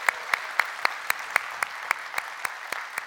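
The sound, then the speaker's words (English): A large in-person audience at a church worship service applauds steadily to welcome online worshipers, a dense wash of clapping with sharp, evenly spaced claps cutting through in a quick regular rhythm, moderately loud, with no talking. “So if you are here in person, would you put your hands together, get loud, and welcome in our online family today?”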